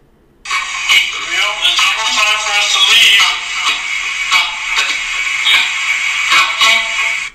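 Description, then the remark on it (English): Tinny, band-limited spirit box audio through an Echo Vox: a steady stream of choppy electronic blips and clicks with garbled, voice-like syllables fading in and out, loud for several seconds. “That's through the Echo Vox.”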